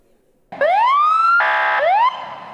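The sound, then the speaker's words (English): A loud ambulance siren in Los Angeles County wails in rising sweeps, switching briefly to a harsher steady blare before climbing again. It cuts in abruptly after a moment of near silence. “Hospital overflow from COVID 19 is creating an overload for paramedics and ambulances to the extent that a new guideline has been introduced to stop the transfer of patients with little probability of survival.”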